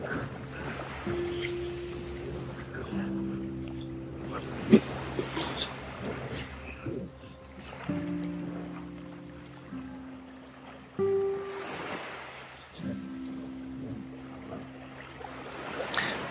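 Sea waves in the Gulf of Salerno wash in and recede in slow, broad swells every few seconds, under a steady layer of sustained tones and faint background activity.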